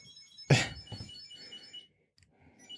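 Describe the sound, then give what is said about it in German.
A Chipolo Bluetooth key tracker rings with a thin, high electronic chirping tone that repeats in a steady melodic pattern, moderately loud, with a sharp thump partway through and faint background rustling. “Definitiv wie so ein nerviges Handy.”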